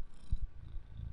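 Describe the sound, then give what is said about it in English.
A soft, steady purr from a cat named Junior rumbles low, with faint pulsing swells and no voices over it. “You know, you know that's the that's a cat for you.”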